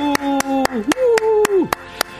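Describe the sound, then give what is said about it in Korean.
Studio applause in a steady rhythmic beat, about nine sharp claps in quick succession, clear, while a voice holds a long sliding vocal note underneath; the applause is for those involved in launching the Korean-built Nuri space rocket. “늦었지만 다 같이 박수.”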